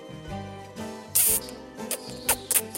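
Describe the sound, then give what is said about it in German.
A loud kiss smacked right into the microphone, followed by a few quicker, softer smacking clicks, all over a steady bed of quiet background music. “Und jetzt gibt's einen Audiokuss.”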